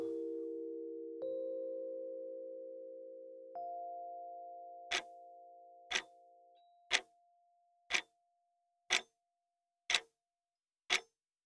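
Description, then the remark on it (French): A clock ticks steadily about once per second, seven crisp clicks in a row, following a few layered chime tones that ring out and slowly fade, accompanying a guided practice session. No voices. “Écoutez quelques instants le tic-tac qui vous accompagne pendant cette séance.”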